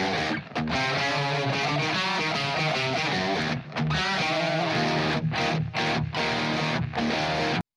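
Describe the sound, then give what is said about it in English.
A loud, dense distorted electric guitar chugs through an E power chord riff, with rhythmic stops and short gaps punctuating the heavy, sustained wall of sound. “you ride on like an E power chord, right?”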